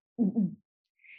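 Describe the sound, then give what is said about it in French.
A person imitates the small throat sound a safety freediver makes at 30 metres: two quick, low, guttural pulses close together, followed after a short pause by a faint, thin, high-pitched squeak. “Euh, et à 30 mètres, il y a le premier apnéiste de sécurité qui me rejoint euh, et qui me fait un, petit bruit de gorge.”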